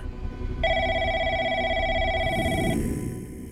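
A telephone rings once at a home during a New Year's party just after midnight on 1 January 1994, a steady electronic tone lasting about two seconds over a low background hum, then cuts off. No one speaks.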